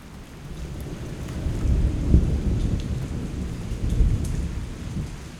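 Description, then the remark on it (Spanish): A thunderstorm at a lagoon lookout point: deep rolling thunder rumbles continuously over steady rain, with a louder crack of thunder swelling around the middle and again near the end. No voices are heard. “Llegamos al mirador y justo en ese momento empieza una tormenta eléctrica.”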